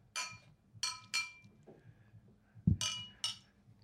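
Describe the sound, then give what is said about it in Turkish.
Several bright glass clinks ring out as glasses are clinked in a toast, three in quick succession, then a short pause and two more, with a soft thump and faint murmur between them. “Şerefe. Cheers. Hadi sante.”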